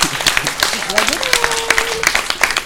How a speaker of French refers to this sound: ah, il y a un applaudissement. venir là, venir là. Il y a un applaudissement mitigé pour les autres. Ah. Venez, descendez. Hein. Ah que tout le monde vous voit, que tout le monde vous applaudisse. Bravo Bravo Bravo, bravo hein.